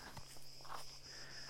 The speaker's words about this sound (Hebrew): ואיך אפשר לתאר את הצרצרים פה?